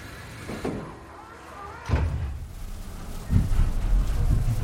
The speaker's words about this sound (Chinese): 地铁门缓缓的关上了，接着地铁慢慢的滑出了车站，车窗外的站台消失在后面。坐在车厢里，居然一点儿都感觉不到震动，真是件稀罕事。